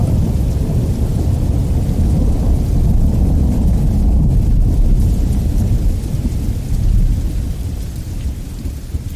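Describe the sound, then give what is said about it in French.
A thunderstorm in the Cévennes rumbles on with deep, rolling thunder that swells and fades continuously, heavy and loud, with a steady wash of rain behind it and no voices. “Et puis évidemment, c'est le son des troupeaux aussi, des, des clarines, parce que les, les moutons ont des, des cloches bien particulières, avec une, une, une, résonance bien particulière, et avec l'orage jamais très loin.”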